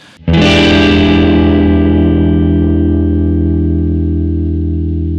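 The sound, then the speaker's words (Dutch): A single distorted electric guitar chord, the so-called guitarist's chord, is struck hard and left to ring. Its dissonant, gritty tone sustains loudly with effects-laden shimmer for several seconds. No voices. “een heel bekend voorbeeld is wat ze noemen het …-akkoord, het uh, …-akkoord”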